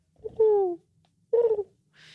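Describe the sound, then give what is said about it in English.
A person imitates an owl, giving two drawn-out, slightly falling hoots separated by a short pause, clear, followed by a brief soft hiss. “I saw two owls the other night. I went out at night, and it's really creepy because you see their silhouette, and then you just hear like,”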